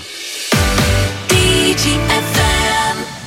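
Upbeat pop music with synth chords and a steady beat starts abruptly after a brief moment of near silence, playing loud and close with no talking over it.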